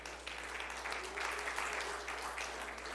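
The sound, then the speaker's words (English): A crowd applauding steadily for a few seconds, a dense wash of many hands clapping at once with no single claps standing out and no voices on top. “No, clap for her, not for me.”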